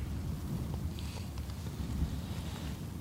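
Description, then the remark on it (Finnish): Steady wind roars across an open field, a continuous low buffeting rumble that never lets up, with a few faint, high twitters barely poking through near the middle. “Ja mennään taas tuuliselle pellolle.”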